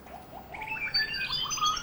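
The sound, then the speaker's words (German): A flurry of high, quick bird chirps and twitters, overlapping and continuous, at moderate volume with no voices. “Was dürfte die für Töne von sich geben? Vogelgezwitscher.”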